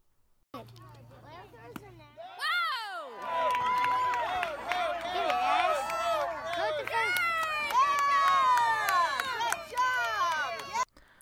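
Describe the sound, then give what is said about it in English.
Excited cheering and yelling from a small crowd of voices as a six-year-old boy gets a hit in his first at bat at his first baseball game, loud and sustained, with high-pitched shouts rising over the din for several seconds and a low steady hum underneath. “Okay, so that was my wife recording it and the one who yelled when he hit the ball.”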